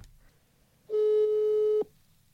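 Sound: telephone ringback tone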